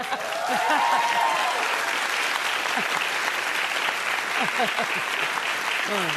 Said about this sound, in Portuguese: Eu reconheço, eu reconheço, esse aplauso como uma demonstração de amor.